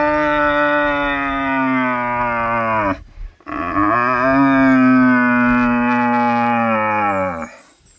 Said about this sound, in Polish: Drodzy Państwo, jeżeli brakuje Państwu do tego ryczenia oczywiście także wizerunku byka, byka jelenia ryczącego na rykowisku, to polecam